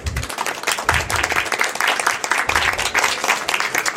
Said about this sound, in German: Vielleicht mal großen Applaus